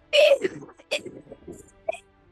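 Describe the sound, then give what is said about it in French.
A voice makes a wet, gurgling creature noise: a loud opening burst, then a string of choppy throaty gulps and sputters with a short sharp catch near the end. “Et euh, euh, tu l'entends comme juste gargouiller.”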